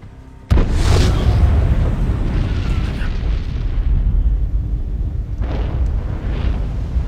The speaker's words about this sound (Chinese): 就在此时，天空一阵巨响，抬眼望去，竟然是两架飞机相撞。